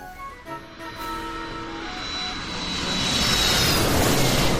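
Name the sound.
airplane flying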